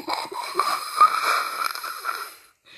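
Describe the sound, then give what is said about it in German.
A cable car travelling up to a mountain gives off odd squeaky, wheezing mechanical noises, a steady hissing rumble with warbling mid-pitched whines for about two and a half seconds before cutting off to silence. “Die Seilbahn, die macht so lustige Geräusche.”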